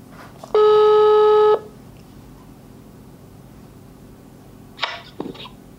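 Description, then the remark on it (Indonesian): A phone ringback tone sounds once, a steady electronic buzz lasting about a second, followed by a hush and then a couple of faint clicks or rustles near the end. “Akan gue telepon sekarang.”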